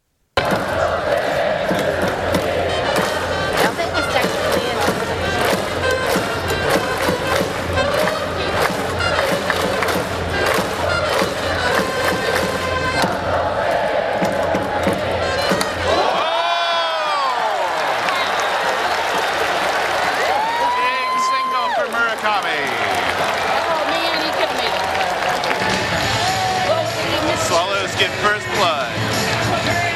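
A loud, roaring ballpark crowd at a baseball game reacts to a batter's hit, cheering and shouting continuously for the whole stretch, with rising and falling whoops and whistles cutting through the steady wall of noise midway.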